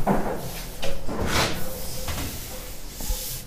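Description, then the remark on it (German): A window is closed in an apartment: a sliding scrape, a couple of dull knocks and clicks, set against a faint hiss of outdoor background, with no one talking. “Ich werde aber doch noch ein, zwei Fenster hier zumachen.”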